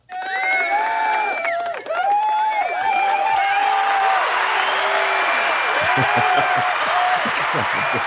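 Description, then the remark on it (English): A crowd in an auditorium claps and cheers loudly and steadily for about eight seconds, with high whoops and yells rising above a dense wash of applause. “the crowd grows. A couple people in the front row.”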